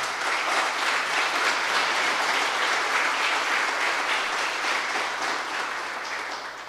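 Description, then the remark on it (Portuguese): An audience applauds Jesus for the sermon's message, together in a steady, dense wash of clapping that holds strong for several seconds and tapers only slightly at the end, with no voices standing out. “Vamos aplaudir a Jesus por essa palavra.”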